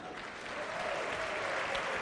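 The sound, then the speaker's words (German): A crowd claps steadily, a dense wash of many hands applauding at once, sustained and fairly loud without any speech over it, the traditional applause for the best table of the round winning a round of free drinks. “Ja, der beste Tisch in jeder Runde bekommt äh, eine Runde Freigetränke und das wird eigentlich Aha. traditionell mit einem Applaus quittiert. Der wäre jetzt fällig.”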